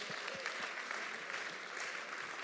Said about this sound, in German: Hey, ich wollte bei der Gelegenheit nochmal allen Rangern nochmal ganz, ganz herzlich danken. Gebt doch mal unseren Ranger mal einen ganz großen Applaus.